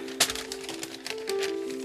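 A person stacks a father's papers into a pile: a sharp crinkling tap, then scattered soft rustles and shuffles over a steady low hum, with no voices.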